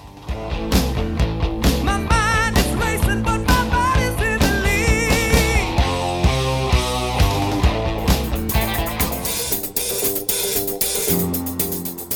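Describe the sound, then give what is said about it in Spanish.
A song plays continuously at full, steady volume: a full band with a driving beat and melodic lead vocal lines, the sound getting brighter and busier toward the end. “Aquí hay …, por eso que invitamos a los … con esta canción estupenda que seguimos escuchando.”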